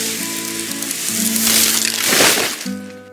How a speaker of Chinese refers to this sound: 小狐狸被厚厚的雪埋住了，原来是冷杉树的树枝被雪压断了。